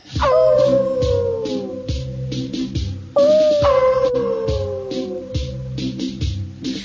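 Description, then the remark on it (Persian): A black wolf lets out two long, loud howls in the middle of the night as it moves slowly toward sheep, each howl rising sharply and then sliding slowly downward, with a steady rhythmic backing pulsing underneath throughout. “گرگ سیاهی در نیمه های شب رفت آهسته به سوی گوسفندان”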